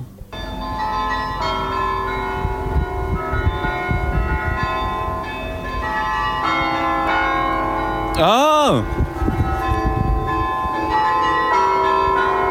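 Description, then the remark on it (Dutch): Carillon bells of the Domtoren (Dom Tower) in Utrecht, played by the carillonneur from the tower, ring out a well-known tune honouring a DJ, clear tonal strikes following one another in a steady melody, echoing, with a brief vocal exclamation partway through. “Soms speelt de klokkenspeler van de Dom bekende liedjes.”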